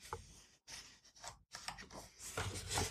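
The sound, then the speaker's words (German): Paper pages rustle and flip in several quick, crackly bursts separated by brief pauses, with no voices present. “Ja, Entschuldigung, ich muss kurz blättern.”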